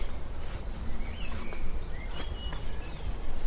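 Scattered thin bird chirps and short whistles in a British garden during the coronavirus quarantine, overlapping now and then above a steady rustling outdoor hiss, with no one talking.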